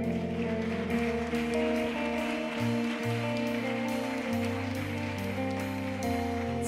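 An audience applauds loudly and steadily, a dense wash of clapping that holds for several seconds over sustained music with shifting low notes; no one speaks.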